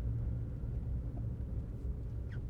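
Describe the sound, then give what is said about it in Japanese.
A car's engine rumbles low and steady as the vehicle pulls away when the traffic light turns green, a continuous deep drone filling the whole moment with no voices. “信号が青になり、片倉は車を進めた”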